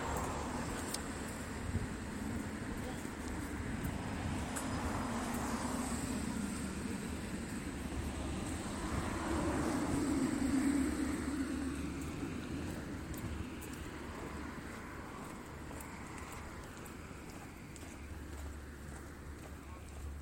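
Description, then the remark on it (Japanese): Steady outdoor traffic rumble with a car passing by, swelling loudest midway before easing off, the low road noise continuing throughout with some wind. “またちょっとあの車がうるさいですけどね”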